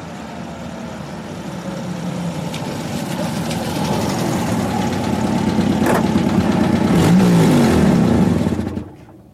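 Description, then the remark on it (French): A car engine rumbles steadily, then revs up with rising pitch as the vehicle pulls away, growing louder before cutting off abruptly at the end. No one speaks. “Ensuite, il reclaque la porte et il monte dans sa voiture et il part assez vite, quoi.”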